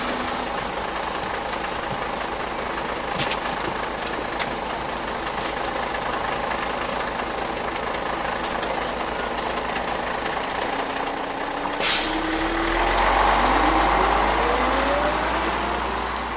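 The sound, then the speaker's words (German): A large city bus, route 979, idles with a steady, rumbling drone, then a sharp hiss of air brakes releases before the engine revs up and pulls away. “Der 979er fährt dahin. Ja, lass uns zum Bus.”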